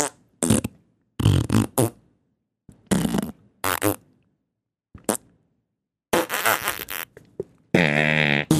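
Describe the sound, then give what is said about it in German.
A string of loud fart noises, apparently blown with the mouth, come in short separate bursts with pauses, then a few longer raspy ones, ending in a sustained buzzing blat. No speech. “Wir furzen einfach.”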